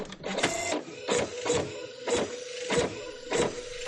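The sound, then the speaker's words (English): A printer prints a scanned copy of a letter with a repeating mechanical rhythm: regular bursts of whirring and clicking about every half second over a steady motor hum, moderately loud. “She was kind enough to send me a scanned copy of the letter, which I immediately put through the printer.”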